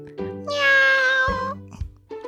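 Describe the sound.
A drunk person on a video call imitates a cat's meow, saying "nya!" with a loud, drawn-out, high-pitched voice lasting about a second, rising then falling, followed by brief softer vocal sounds.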